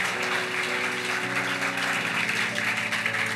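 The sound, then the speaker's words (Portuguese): An audience applauds Jesus in a steady, dense wash of clapping that holds at full strength for a few seconds, with sustained keyboard chords shifting underneath. “Pode aplaudir Jesus.”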